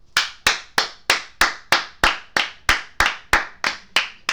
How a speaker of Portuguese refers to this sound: Palmas desmerecidas. Palma de ironia? de ironia. De Não. Ah, ironia. Palma pro empresário, né, meu é. amiguinho? Palma pro empresário de Maguaia.